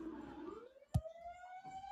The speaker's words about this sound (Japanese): なんかサイサイレンがめっちゃさっきからえ大丈夫かなさっきからすごい通るんですけど消防車が